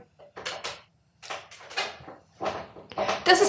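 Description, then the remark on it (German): A chair creaks and rustles in several short bursts as someone seated on it shifts their weight, with brief pauses between the movements. “Keiner von uns darf sich bewegen, denn wenn das wir uns stimmt. bewegen, dann hört ihr das hier.”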